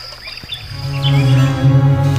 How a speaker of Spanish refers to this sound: el ruiseñor común, Luscinia Rincos, un ave que por su riqueza canora ha sido considerada, al menos aquí en Europa, el rey de las aves canoras.